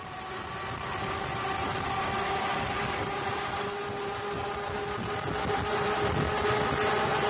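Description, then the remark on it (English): A 27-liter Liberty V12 World War I airplane engine roars at full throttle, driving a mahogany boat in a steady, loud, dense drone with a constant low hum and harmonic tones running through the whole stretch, no voices present. “Uh, I have a sound clip of the Liberty V12, a 27 liter V12 World War I airplane engine, and that's used in these boats.”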